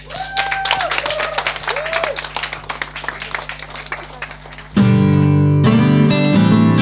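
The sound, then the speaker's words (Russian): An audience applauds steadily for several seconds, dense overlapping clapping with a few whistle-like tones, before loud music abruptly cuts in and takes over. The applause is for the musicians at a live concert at the Old Fashioned Radio club. “И все-таки еще раз аплодисменты для музыкантов.”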